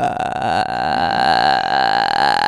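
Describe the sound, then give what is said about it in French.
A person imitates a frog's croak, mimicking the strange noise the ghost makes in the film The Grudge: one long, loud, raspy throat rattle that holds steady for a couple of seconds, low and guttural. “Pour, pour moi qui n'ai pas vu The Grudge, il y a vraiment une grenouille dedans ou c'est vraiment moi qui imite mal la grenouille En fait, le, le, le, fantôme, pour faire sentir sa présence, fait un bruit chelou et ça fait.”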